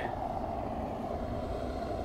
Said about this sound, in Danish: Nu kommer der lige øh, en lastbil kørende her. Kan han komme forbi?